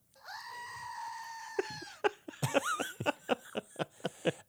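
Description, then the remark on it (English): A loud, sustained goat-like scream from a novelty toy, holding a long wavering bleat for about two seconds, then a quick series of sharp clacks and chopped bleating bursts. “And that was a screaming goat.”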